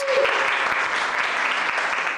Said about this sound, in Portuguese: Os alunos estavam tão animados que essa professora foi recebida com aplausos.